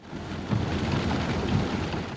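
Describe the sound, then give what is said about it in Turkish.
A sudden heavy 15-minute rain downpour in Bodrum, Muğla, Turkey, turning the streets into lakes, pours down in a steady, dense roar, with low rumbling underneath that swells briefly around the middle. No voices, just the constant loud wash of the downpour. “Aniden bastıran yağmur yolları göle çevirdi.”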